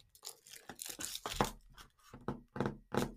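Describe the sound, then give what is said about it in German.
Crinkly tearing and crackling of a Toblerone chocolate bar wrapper being opened, a run of bursts of rustling and crunching, fairly quiet, with no talking. “Als erstes esse ich Toblerone.”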